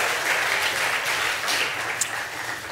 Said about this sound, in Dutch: Ja, oké, goed zo. Applaus. Dankjewel.